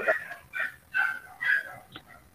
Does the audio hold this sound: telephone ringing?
no